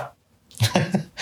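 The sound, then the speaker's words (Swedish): A single sharp sneeze bursts out after a brief silence, fairly loud, with a voiced tail trailing off right after it. “Bless you brother. Så, så det är ju prosit.”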